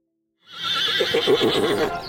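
A horse neighs loudly, one long whinny with a shaky, quavering pitch that rises and then trails off, heard on its own with no talking.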